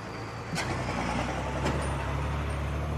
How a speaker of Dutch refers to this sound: springt terug in de auto die meteen wegrijdt.